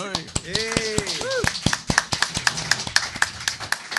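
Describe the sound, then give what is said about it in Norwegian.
Brief applause of sharp hand claps for a participant from Ålesund, fairly loud and steady throughout, with a rising-and-falling voice or whoop heard near the start. “Få en applaus.”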